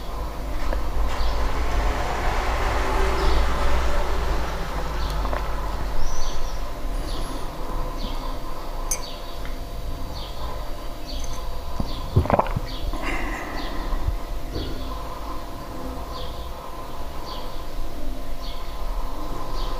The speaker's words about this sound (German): Die ersten Autos fahren.